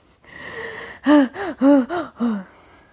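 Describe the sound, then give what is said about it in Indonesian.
A breathy deep inhale lasting nearly a second, followed by a quick run of five short voiced, laugh-like bursts. No words are spoken. “Kalau misalnya yang fotosensitisasi primer ini uh, napas dulu”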